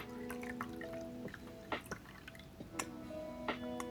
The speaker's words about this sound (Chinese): 不知道你们听到那种倒水的声音，会不会觉得很疗愈，或会不会觉得有点 S A S M R 的感觉？